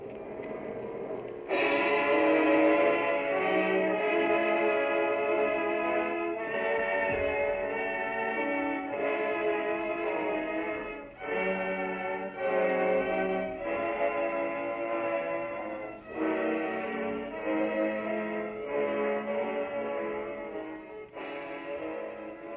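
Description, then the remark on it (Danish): The Israeli national anthem plays over the large loudspeaker system at the entrance to Hamburg harbour, Germany, loud and distorted by the offshore wind, slow and stately with sustained harmonic chords and phrase breaks, a reverberant outdoor quality and no talking. “Det er Israels nationalhymne, de hører. Den lyder en del forvrænget, for det store højtaleranlæg ved indsejlingen til Hamburg Havn har svært ved at få bugt med fralandsvinden.”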